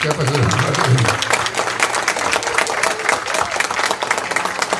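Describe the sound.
An audience breaks into steady, sustained applause, a dense wash of many hands clapping at an even level for several seconds, with a few voices briefly audible underneath at the start.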